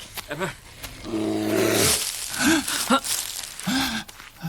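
A bear roars loudly and close by, a long rumbling bellow followed by several shorter growls and grunts over a few seconds.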